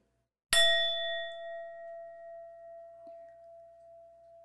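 A singing bowl is struck once, giving a bright metallic strike that settles into a long, steady ringing tone, slowly wavering as it sustains clear in silence.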